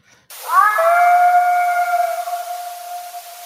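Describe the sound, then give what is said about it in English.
A single long, drawn-out howl recorded in the woods in Colorado that swoops up at the start, then holds a steady, slightly wavering pitch for several seconds, fairly loud over a faint background hiss. “And there seems to be a gap of about six seconds in between the howl here.”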